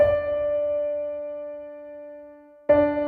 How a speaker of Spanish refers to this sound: Dejamos al final la octava. La octava es la relación que hay entre una nota y la misma nota, pero a diferencia del unísono, esta está una octava más arriba, con una distancia de 12 medios tonos.